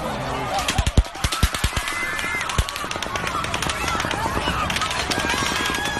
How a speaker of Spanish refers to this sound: it was the gunshots. But if it was 223, como dice Jaro, es una bala más pequeña de alta velocidad que puede rebotar de, en con, concreto de diferentes cosas. Vamos a escuchar un poco cómo sonó ese momento ca caótico, ¿no?